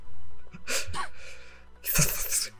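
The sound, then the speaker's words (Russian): Someone imitates a reptilian creature with a few loud, breathy hisses and snorts in short bursts, then a longer rasping hiss after a brief pause. “Это вы, что были звуки рептилоидов, ага.”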